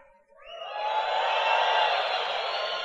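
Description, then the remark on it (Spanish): An audience breaks into a loud, sustained roar of shouting in answer to the speaker's call for their best shout, swelling within the first second and holding steady to the end, many voices blending together with no single speaker standing out. “Regálame tu mejor grito.”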